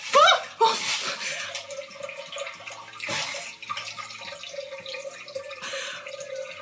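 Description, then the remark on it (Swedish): A bidet's water spray switches on after a short electronic chirp for a bum wash, then hisses steadily with uneven surges and spattering throughout. “så finns det möjlighet då att börja tvätta rumpan med vatten istället.”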